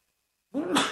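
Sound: sneeze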